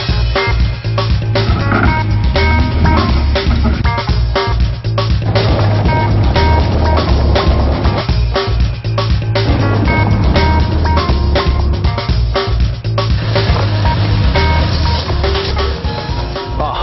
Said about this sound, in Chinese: 我们现在身处祖国大西北的一个山谷的谷底，呃，不要问我们是怎么下来的。现在的任务是，我们要在这台3.0升发动机的帮助下爬出谷底。